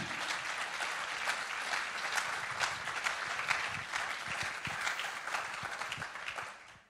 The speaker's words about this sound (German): Lasst uns ihnen mal einen großen Applaus geben. Dankeschön.